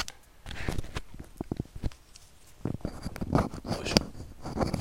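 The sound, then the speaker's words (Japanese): Rough scraping and crackling rustle of a microphone attached in an odd spot rubbing against fabric or a surface, in irregular bursts that grow denser and louder in the second half, with no voices. “ガサガサガサガサ言ってるよね。”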